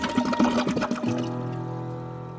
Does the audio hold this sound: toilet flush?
yes